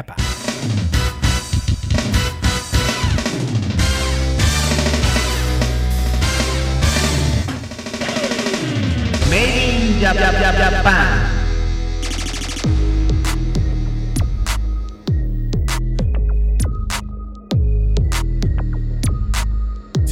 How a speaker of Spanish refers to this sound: Y sigues en el programa de música de videojuegos, escuchando como siempre una de las cosas que menos nos gusta poner en el programa. Esta es la banda sonora de Cyberpunk 2077.